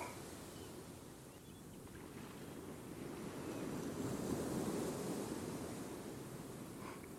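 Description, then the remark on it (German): Ocean waves wash steadily onto the shore, a continuous rushing roar that swells louder in the middle before easing slightly, with no voices present. “Die Wellen bewegen sich ständig. Ebbe und Flut sind die Lebenskraft unserer Ozeane. Ariadne hört ihnen zu.”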